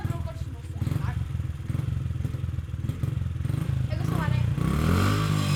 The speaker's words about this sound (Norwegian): sånn brummer i små motorsykler og sparkesyklene flyr veggimellom i fjøset.